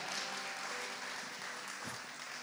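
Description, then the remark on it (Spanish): An audience applauds, a dense, steady wash of many hands clapping at an even loudness for a couple of seconds, with no voices speaking over it. “Ah, ah un amigo mío, por favor, denle un fuerte aplauso.”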